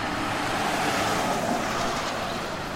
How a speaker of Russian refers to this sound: Улица, задушенная туманом, бесконечно плыла вдаль. Миновали площадь, пронесся одноглазый автомобиль,